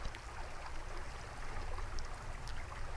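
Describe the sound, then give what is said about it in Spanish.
Water flows steadily through an irrigation channel as it is distributed among farm plots, a continuous rushing, burbling wash with faint splashy highlights, moderately quiet and unbroken throughout, with no voices. “Todas las noches se acumula el agua en un estanque para aumentar el cauce del río, el tomero abre la compuerta todos los días a las seis y media de la mañana y reparte el agua por todos los ayús en partes iguales.”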